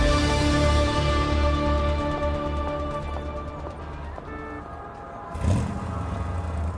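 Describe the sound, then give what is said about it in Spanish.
A car engine drones steadily amid heavy road traffic on the drive to work, a low continuous rumble with faint tonal whine, then a brief louder surge near the end before settling again. No one speaks. “Y ahorita hay un tráfico horrendo”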